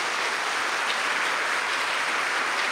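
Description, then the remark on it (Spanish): An audience at a gathering with Catholic preacher Salvador Gómez claps steadily in applause to the Lord, a dense, even wash of many hands with no distinct individual claps, holding at a constant level for a few seconds without any voices. “Démosle un aplauso al Señor que nos ayuda a descubrir”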